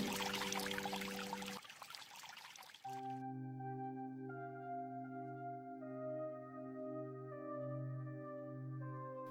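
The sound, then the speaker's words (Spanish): Water pours and splashes loudly for about three seconds, then gives way to steady, sustained musical tones that continue to the end with no talking. “Donde hay agua, ¡Ay, vida. Cristóbal Colón, agua purificada primero.”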